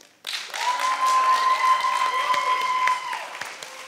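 An audience breaks into loud, dense applause that starts abruptly and holds steady for several seconds, with a thin, steady tone humming through the clapping.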